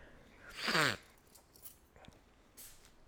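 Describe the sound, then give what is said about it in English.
A single short, sharp sneeze from a baby boy bursts out near the start, fairly loud, followed by quiet background noise with a couple of faint soft sounds. “Who sneezed? Baby, baby.”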